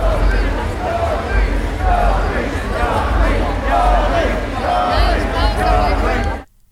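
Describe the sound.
A dense concert crowd waiting for a performer murmurs and chatters steadily, many overlapping voices forming a loud, continuous babble, with occasional louder calls rising above before it cuts off abruptly.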